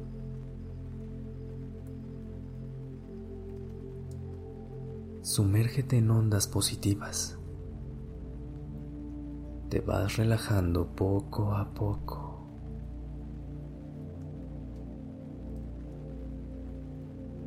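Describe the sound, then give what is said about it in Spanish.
Steady, soft rainfall hisses throughout over a low, sustained musical drone, with a calm voice speaking gently in two brief passages. “Ahora imagina que está lloviendo y escucha el sonido del agua.”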